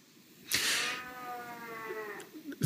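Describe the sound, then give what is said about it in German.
A cat in the background lets out one long, drawn-out meow lasting well over a second, starting with a sharp onset and slowly trailing downward. “Jetzt hörst du da im Hintergrund meine Katze maunzen.”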